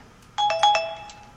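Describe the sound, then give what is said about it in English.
A phone notification tone plays on a phone not switched to silent, a quick run of three or four bright chiming notes that ring out and fade, clear, with no talking over it. “Sorry, that was my phone.”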